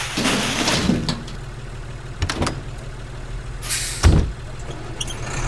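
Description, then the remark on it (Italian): A heavy garbage truck for unsorted waste idles with a low, steady engine rumble, punctuated by sharp hissing bursts of air brakes, the loudest hiss coming near the end, as a man throws collected batteries into it. “Ah, guardate, quel signore le ha raccolte e le sta buttando in un camion della spazzatura indifferenziata.”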